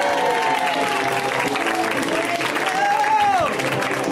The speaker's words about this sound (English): I need a big old round of applause to welcome everybody, Asif Ali. Asif! Yeah!